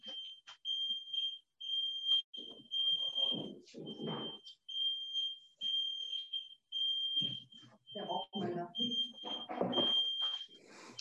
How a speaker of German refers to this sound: Der Rauchmelder. Aber, das, ähm, das, Abendessen auf dem Herd, oder?